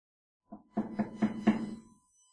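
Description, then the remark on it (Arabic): Four evenly spaced, moderately loud knocks on a door, landing in a quick steady rhythm after a soft first tap, with no talking. “اجت مين اللي عم يدق الباب؟”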